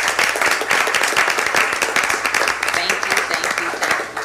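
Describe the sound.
A steady round of applause from a crowd for the interim library director, many hands clapping in a dense, crackling wash that stays loud and even for several seconds, with faint voices mixed underneath.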